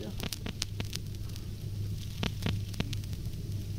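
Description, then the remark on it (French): Scattered sharp clicks and pops crackle irregularly over a steady low hum and soft hiss, the familiar surface noise of a vinyl record between tracks. “Et puis il y a les imperfections du disque vinyle, ses craquements, je vous propose une séance de craquement thérapie, juste ce son qu'on entend, surtout au début et à la fin du disque.”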